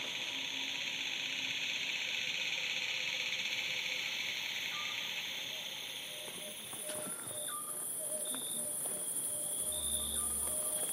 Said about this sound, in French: Ce qui fait le côté le plus flûté là, c'est le grillon. Et la grande sauterelle, c'est le tch Et ça s'arrête par moments. puis ça s'arrête.